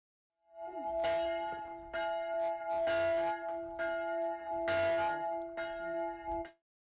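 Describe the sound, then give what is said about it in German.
Church bells in Rom, recorded in July 2020, ring out in a loud, resonant peal, repeated strikes overlapping over a steady sustained hum, with no voices present. “Die Glocken sind natürlich weit zu hören.”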